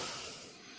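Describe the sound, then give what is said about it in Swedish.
A short, breathy sneeze comes through as a hissing, spray-like burst of air lasting under a second, fairly quiet and with no talking over it. “Eh, prosit.”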